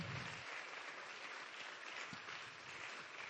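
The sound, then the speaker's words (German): Sustained applause from a crowd for people called up to the stage, a steady dense wash of clapping holding at an even, loud level throughout with no voices standing out. “Gebt ihnen einen ganz großen Applaus.”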